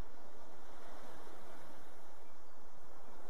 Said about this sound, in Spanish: Puedes venir aquí y dejar que las olas te ayuden a relajarte, a dejarte ser, a sentirte desde tu pura esencia. Con una gran sonrisa en tus labios, te despides de las olas,